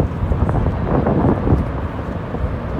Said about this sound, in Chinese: And the breeze.